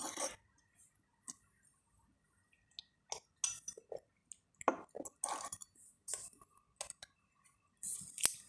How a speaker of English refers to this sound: take a sip of my coffee again